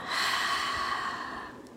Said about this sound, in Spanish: Entonces, una respiración que pueden hacer en ese momento súper facilita, inhalo profundo por la nariz, lleno mis pulmones totalmente y exhalo por la boca.